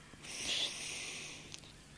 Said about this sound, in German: Und jetzt achtet ihr auf eure Atmung. Und ihr atmet ein durch die Nase